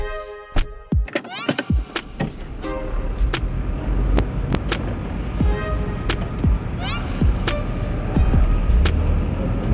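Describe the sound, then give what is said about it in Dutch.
A car engine rumbles steadily, overlaid with sharp mechanical clicks, whirs and brief whooshes, loud, with no talking. “De auto.”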